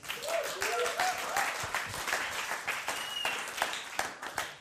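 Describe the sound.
An audience claps steadily throughout as a speaker is welcomed on stage, a dense crackle of many hands at a fairly even level, with a few whoops and crowd voices rising briefly near the start.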